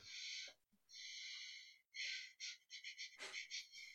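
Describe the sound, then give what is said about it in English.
A person imitates sniffing breaths: two long, airy breaths, then a quick run of short, rhythmic sniffs, with no talking. “kind of like sniffing us out almost.”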